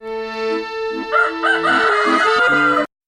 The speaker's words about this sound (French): Il y a les coqs qui chantent dès 6 heures du matin.